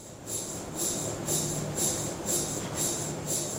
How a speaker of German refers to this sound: Das Geräusch eines Magnetresonanztomographen. Mit ihm lassen sich Aufbau und Funktionsfähigkeit von Gewebe und Organen sehr gut darstellen und untersuchen.